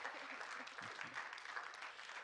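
Steady, dense applause from an audience after two people share a story of healing, many hands clapping at once in a continuous wash of sound with no pauses, fairly loud and filling the whole stretch.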